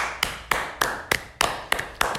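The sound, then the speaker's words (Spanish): Steady clapping as applause for actor Diego Boneta, about eight sharp, crisp claps at an even, brisk pace, each with a short ringing tail, with no voices. “Aplausos para Diego.”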